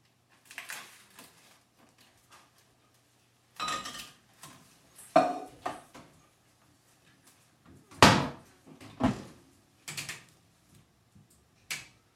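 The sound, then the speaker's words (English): Washing up, heard as irregular clatters and clinks of dishes and pots knocking together. Sharp bursts come every second or two, some loud, with quiet gaps between them and no talking. “Some stunning washing up on this one.”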